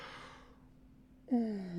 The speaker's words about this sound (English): well, as i'm yawning because I don't know why.